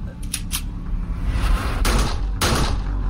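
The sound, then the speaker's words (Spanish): Two loud, sharp gunshots ring out about half a second apart over a dense, rumbling background, preceded by a couple of fainter cracking pops; the two shots are fired into a woman's head to finish her off. “La remató con dos tiros en la cabeza.”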